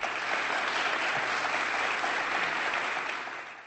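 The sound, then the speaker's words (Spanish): Sustained applause from a crowd as the Bishop of Cartagena, Monsignor José Manuel Lorca Planes, announces the appointment of Monsignor Fernando Valera Sánchez as Bishop of Zamora: a dense, steady wash of many hands clapping that holds at an even level for several seconds before easing slightly at the end. “Con estos aplausos anunciaba este viernes el obispo de la diócesis de Cartagena, Monseñor José Manuel Lorca Planes, el nombramiento como obispo de Zamora de Monseñor Fernando Valera Sánchez.”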